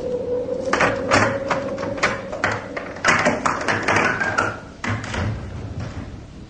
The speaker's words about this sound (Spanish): Oí aproximarse unos pasos enérgicos al otro lado de la inmensa puerta y vi por un resquicio el resplandor de una luz.